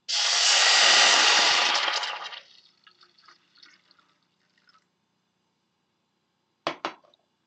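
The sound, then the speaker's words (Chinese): Drinking water poured into a hot pot of stir-fried CTC black tea sets off a loud, broad hissing sizzle for about two seconds, which fades into faint scattered crackles, followed later by two short clanks. “这个时候，我们呢把我们的生饮水加入其中，会有一点点声音，不要怕。”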